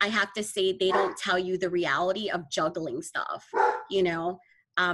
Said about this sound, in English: I do apologize for my dog in the background. My dog just wants to talk. I think he thinks he's being interviewed, I don't know.